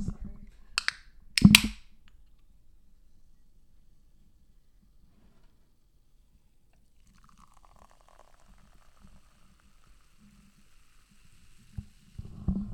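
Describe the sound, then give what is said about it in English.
A sharp crack and hiss of a can of Dr. Brown's cream soda opening near the start, followed by a long stretch of quiet, soft pouring and faint fizzing, with some low murmuring at the end. “Ooh, that sound you just heard is us pouring a can of Dr.”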